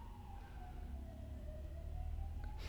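A wailing siren glides slowly in pitch over a low rumble of traffic, continuous throughout, with no one speaking.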